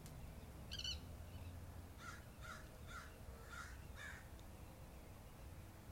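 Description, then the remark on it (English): A series of harsh crow caws rings out outdoors, five or six rasping calls in a loose rhythm after a brief chirp, over a steady low rumble of background noise. “I'm so grateful for the curls right now, the birds, the moon, everything is just so live right now.”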